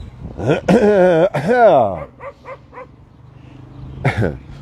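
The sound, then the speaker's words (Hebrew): A dog barks in reply as a person clears his throat, a few loud, drawn-out bursts, then a run of short, quieter yips and one more sharp bark after a brief pause. “ראיתם? אני מקחקח והוא נובח, זה אפילו אותו.”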